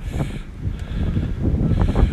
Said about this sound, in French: Oh là là, quel vent C'est par où le vent Où est-ce que je peux Non, voilà, il était dans mon dos.